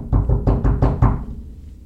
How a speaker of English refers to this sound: There's an official sounding knock at the door.